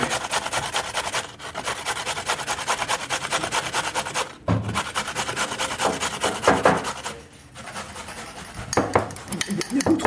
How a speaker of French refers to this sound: ah, le son que vous entendez, c'est. Je, suis en train de râper des carottes. Façon manuelle.